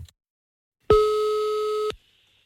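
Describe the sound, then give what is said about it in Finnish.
A single steady electronic telephone ringing tone sounds for about a second as an outgoing phone call is placed, clean and fairly loud, then cuts off abruptly, with silence on either side and no voices. “Ja nyt me soitetaankin Sannalle.”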